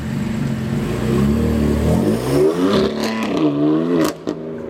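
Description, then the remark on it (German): A car engine idles with a low steady rumble, then revs up, its pitch climbing and shifting as the car, just taken out of the garage with two passengers on the back seat, pulls away, with a brief clatter near the end. “Sie holt ihr Auto aus der Garage, verfrachtet Gustav und Luna auf die Rückbank und schon geht's los.”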